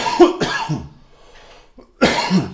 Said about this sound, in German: aber ich muss mal wieder husten.